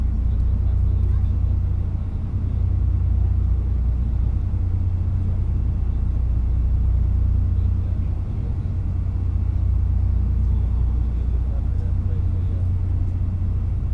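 A ferry engine rumbles steadily throughout a crossing from Strucklahnungshörn to Pellworm, a deep low drone with a constant hum and faint texture above it, holding at the same level without pause; no clear voices stand out.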